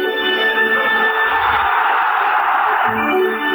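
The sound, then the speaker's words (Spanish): A dense crowd of Atlas de Guadalajara football fans chants their war cry, "el pianito", together, a loud sustained roar of many voices with steady harmonic tones running through the whole stretch. “Ahí está el grito de guerra. El pianito del Atlas de Guadalajara.”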